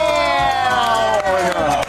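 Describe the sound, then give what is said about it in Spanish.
A loud, dense burst of crowd cheering and applause fills the whole moment, with excited voices rising over steady clapping, continuous. “aplauso, de por favor.”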